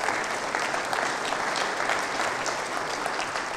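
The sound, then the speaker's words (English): An audience at Mass applauds steadily, the dense clapping of many hands holding at an even, fairly loud level throughout with no voices on top. They are applauding the people who brought their kids to Mass. “Give these people a huge round of applause.”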